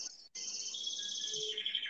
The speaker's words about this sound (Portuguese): Aí eu costumo dizer assim, é passarinho que canta, hein? Não é? Tá cantando, é Aí beleza.